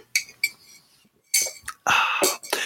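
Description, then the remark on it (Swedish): Glasses of a small cold Irish drink clink together in a toast, a handful of bright, sharp knocks, two light taps followed by a louder, fuller rattle of glass near the end. “Ja, nej men skål …. Skål! skål”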